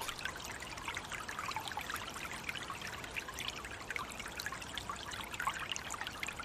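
Steady water of the River Dodder in Dublin, Ireland, trickling and flowing over stones, a continuous babbling with bright splashy detail and no voices, holding an even level throughout.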